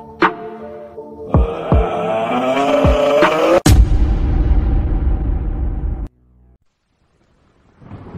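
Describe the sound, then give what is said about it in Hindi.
A heavy rain storm sound effect: eerie, wavering tones swell for a few seconds, then a sharp thunder crack breaks into a loud, deep rumble that rolls on before cutting to near silence. “बहुत तेज बारिश हो रही थी”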